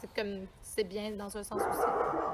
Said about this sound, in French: Ah, ça, c'est mon chien.